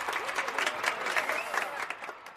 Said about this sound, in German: Ein Knopfdruck auf der Fernbedienung und du hast sofort eine super Zuschauerkulisse mit 200.000 johlenden und klatschenden Zuschauern während dem Match. So muss Technik. Also, Hauptsache Stimmung, darum machen wir das auch. Publikum ab Konserve.